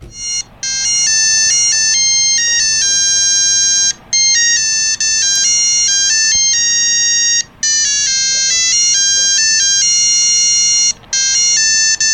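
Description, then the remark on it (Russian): A shrill alarm tune from a Montana digital wristwatch plays a rapid, stepping electronic melody of pure beeping tones, repeating in loops with brief pauses, loud with no voices. “Это те самые часы Монтаны и одна из мелодий на этих часах.”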